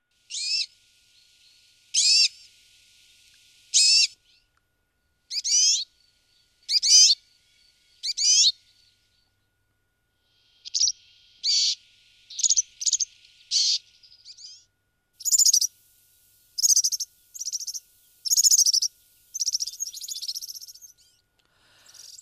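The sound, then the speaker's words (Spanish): A European serin, a small songbird, sings a lively, varied song of short, high-pitched phrases, each burst differing from the last, repeated steadily with brief pauses. Clear, with no voices. “Bueno, sí, oímos bastantes eh, notas diferentes, bastantes eh, cantos un poquillo diferenciados, pero bueno, es un pajarillo eh, muy cantarín, el serín verdecillo”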